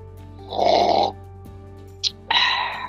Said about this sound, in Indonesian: itu namanya seruput guys seruput keindahan keseruputan saat ngopi tuh di situ